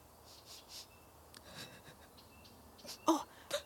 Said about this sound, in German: Hört ihr das? Ich glaube, sie weint. Oh ja, das klingt so. Sie sitzt direkt neben dem Gemüsebeet.